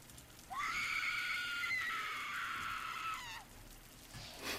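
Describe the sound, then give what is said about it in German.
A single loud, drawn-out human scream performed by a player, lasting about three seconds, high and strained, swelling in at the start and sliding down as it breaks off, with no talking around it. “und ist eigentlich erstmal komplett entsetzt und gibt einen lauten Schrei nach vorne.”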